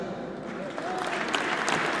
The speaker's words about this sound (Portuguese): Ainda estamos eh, na fase dos vários agradecimentos que vão sendo intermediados por palmas da eh, audiência.